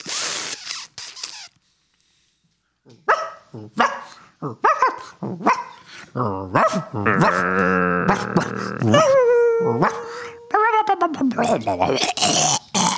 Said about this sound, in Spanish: Ahí vomitó el perro.